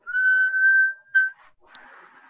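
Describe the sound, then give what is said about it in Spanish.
A person whistles a single steady, high tone for over a second, imitating a whistling sound, followed by a brief breathy blow and faint rustling. “cuando estaban rezando, todos estaban escuchando como si le chiflaran en el, en el oído”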